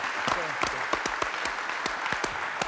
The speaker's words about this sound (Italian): Un applauso per Luchino, facciamo, per sì, no?